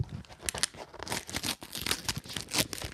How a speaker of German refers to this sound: Wir reißen es jetzt mal auf, mal ganz okay. dezent.